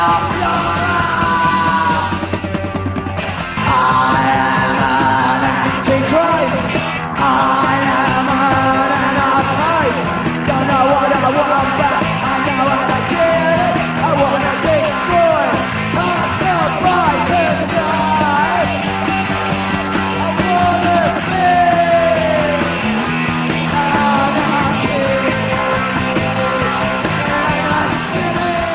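A noisy punk rock band plays loudly without pause, with raw shouted vocals over distorted guitars and pounding drums in a dense, relentless wall of sound.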